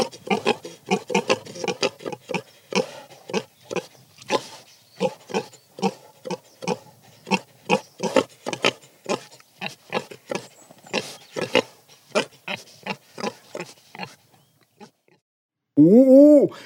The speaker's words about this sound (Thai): เสียงหมูนี่ครับ